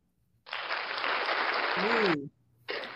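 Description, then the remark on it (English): A loud, steady burst of crowd applause welcoming a show's guest, the founder and CEO of Love Him, Love Them, runs for nearly two seconds, a voice briefly rising over its tail, then it drops off and quickly starts up again. “love that applause.”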